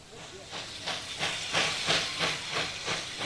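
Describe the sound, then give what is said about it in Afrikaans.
A steam locomotive, its steam made by a coal fire and driving a piston that turns the wheels, hisses in rhythmic bursts, roughly two or three chuffs per second. A broad breathy rush of steam swells and fades steadily, moderately loud. “word stoom wanneer dit deur 'n steenkoolvuur warm gemaak word. Dan is daar 'n suier wat heen en weer beweeg.”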